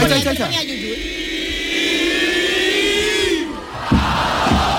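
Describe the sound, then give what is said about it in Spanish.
A crowd of children at a live clown show shouts together in a long, sustained loud cry, then the shouting breaks into scattered excited yells, lively throughout. “Esto es un sonido directo del, del payaso, de, los niños”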